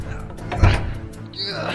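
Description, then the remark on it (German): A jammed door in a cathedral is rattled and shoved, producing a single heavy thunk midway through amid a busy, noisy background with voices present. “Sie kommen, mach die Tür auf! Es geht nicht! Sie klemmt!”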